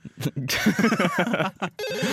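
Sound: mobile phone ringing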